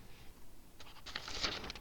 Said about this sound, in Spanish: Y, sí, ese fue un ruido de hoja.